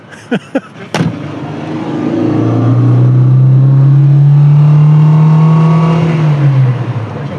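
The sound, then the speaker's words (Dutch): A few sharp clicks, then a vintage car engine roars to life and revs up with a bit of throttle as the car sets off for a short drive, its low drone climbing steadily in pitch and staying loud for several seconds before easing slightly. “Nou, om een stukje te gaan rijden.”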